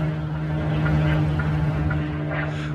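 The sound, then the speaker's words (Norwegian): A steady, buzzing engine drone of unmanned military drone aircraft flying overhead hums without pause, heard day and night, with a strong low tone holding constant throughout. “Det som var spesielt der, var den kontinuerlige lyden av sånn eh, Det høres ut som poengsmotor. som å sitte ved fjorden en sommerdag. Med masse poengsmotor. Og det er jo disse dronene, ubemannede flyene som flyr over hele tiden.”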